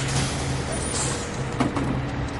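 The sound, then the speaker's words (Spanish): A bus rumbles as it pulls up and halts in front of a hooded woman on a fine night, its low engine drone steady throughout, with a short burst of brake hiss partway through. “Un autobús para frente a la mujer en que lleva capucha.”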